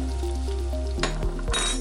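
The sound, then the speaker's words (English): Meat and onions seasoned with sazon sizzle on a grill at home as dinner is being finished, with a steady crackling hiss, swelling in a few louder bursts partway through, with faint clinks and no voices. “The smell of steaming rice and grilled onions with sazon filled the house.”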